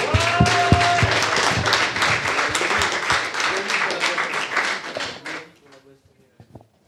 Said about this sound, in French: Merci aux dames, vous pouvez les applaudir encore une fois parce que franchement c'est cool.